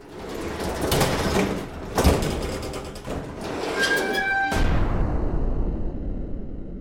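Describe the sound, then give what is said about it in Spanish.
A heavy sliding door of a building, pushed open a few centimetres, rumbles and scrapes along its tracks with thuds and metallic squeals, opens fully, then halts with a loud abrupt bang, leaving a low rumbling hum behind. “Se abrió por completo, deteniéndose de golpe, lo cual provocó un estruendoso ruido.”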